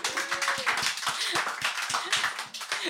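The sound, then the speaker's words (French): A small group applauds, with dense overlapping hand claps forming a steady, bright patter that lasts the whole few seconds, with no one speaking over it. “Est-ce qu'on peut applaudir le mot enjailler, s'il vous plaît”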